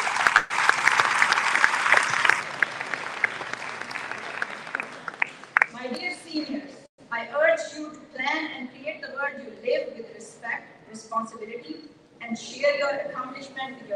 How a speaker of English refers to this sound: Let's give our staff a big round of applause.